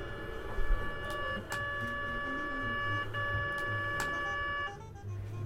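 An MRI scanner runs during a patient's imaging exam with a steady, tonal electronic hum and sharp knocks that repeat at irregular intervals, with no voices.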